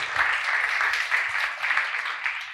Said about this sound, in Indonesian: Benar-benar sembuh, coba tepuk tangan untuk Tuhan.